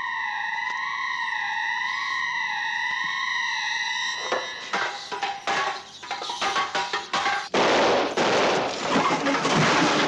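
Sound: gunshots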